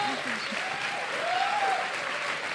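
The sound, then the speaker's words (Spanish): Steady audience applause for the winner of a best female podcaster award fills the whole stretch, a dense even wash of clapping at moderate loudness, with a faint whistle-like tone gliding through the middle. “Un aplauso para ella, mejor podcaster femenina.”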